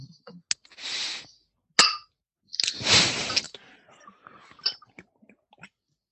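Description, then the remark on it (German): A couple of sharp, ringing clinks of drinks, including a beer, knocked together in a toast, surrounded by rustling and handling noises and a few softer taps, with no talking. “Prost. Prost.”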